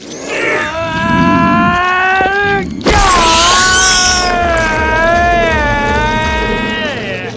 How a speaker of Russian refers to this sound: Звук, да, особенно когда Люкенг, когда он давит рептилию, он очень протяжно при этом кричит.